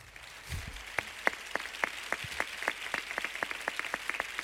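Audience applause called for by a singer for his cousin, who has just come out to join him: a steady patter of hands with sharp, evenly spaced claps standing out roughly three times a second, at a moderate level and with no voices over it.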